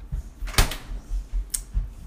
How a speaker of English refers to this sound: Oh, hold on. That would be my daughter grabbing a drink from the fridge right behind me.